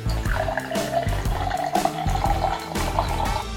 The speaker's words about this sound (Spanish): Para conocer de cerveza es importante leer, pero lo principal es destapar, servir